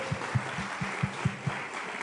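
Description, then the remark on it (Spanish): An audience claps in a steady patter for a couple of seconds, soft, with a few heavier claps standing out and no one speaking, applauding the married couples with the shortest time married, under five years. “Muchas felicidades, un aplauso para ellos, por favor.”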